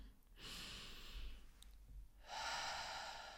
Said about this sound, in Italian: Al nostro respiro cosa significa? Significa che ognuno di noi, quando respira, inspira